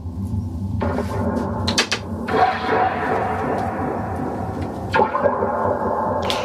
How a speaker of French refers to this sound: c'est des longs ressorts reliés à des pots de tambour, ça résonne, ça réverbe, et Gorkem en joue à la fois avec un archet et avec des maillots, c'est le bordel quoi.